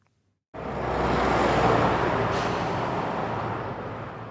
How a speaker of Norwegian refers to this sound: Europavei 18 inn til Oslo vestfra, den såkalte Vestkorridoren. Rundt 100 000 biler passerer her hvert døgn.